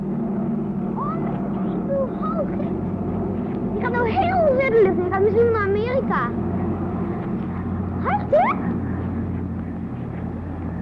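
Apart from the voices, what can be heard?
airplane flying overhead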